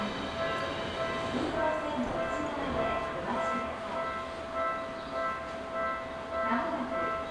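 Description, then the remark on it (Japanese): A four-car local train bound for Kokubunji pulls into platform 3 of a station with a steady rumble and a sustained electric whine running through it, continuous for the whole stretch without breaks. “まもなく3番ホームに各駅停車国分寺行きが4両編成で参ります黄色い線の内側でお待ちください”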